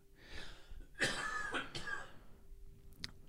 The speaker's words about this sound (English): I'm going to cut a lot of these coughs out of this. It's pretty gross.